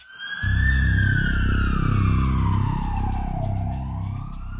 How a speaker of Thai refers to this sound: เช้าวันที่ 1 ผู้ที่เข้าสมัครร่วมโครงการเนี่ยนะครับจะมีรถตำรวจเปิดไซเรนมาจอดที่หน้าบ้านเลยแล้วก็ดำเนินการจับกลุ่มพวกเขาโดยไม่มีการแจ้งล่วงหน้า